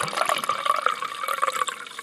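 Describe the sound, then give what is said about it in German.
Grauburgunder wine pours into a glass in a steady, gurgling stream, with bright liquid tones and bubbling that hold for about two seconds before easing slightly toward the end, with no voices. “Ähm, ähm, das feiern wir doch mit einem Glas. Endlich haben wir mal einen Grund anzustoßen. Grauburgunder.”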